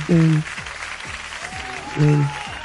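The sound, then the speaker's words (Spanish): Steady, crackling applause runs the whole way through, with two short, loud vocal bursts, one near the start and one toward the end, rising above the clapping. “Aplausos para ti.”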